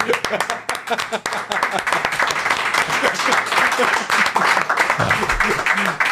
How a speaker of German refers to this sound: Ich muss leider sagen, ihr wart dann zwei Sekunden zu spät ah, mit dem Applaus.